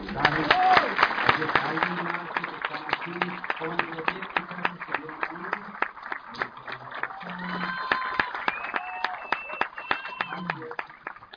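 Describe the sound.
A crowd applauds steadily, dense rapid clapping running the whole length, with voices talking and calling out over it and some faint whistles toward the end.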